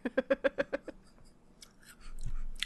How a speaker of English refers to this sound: Everyone can hear you eating.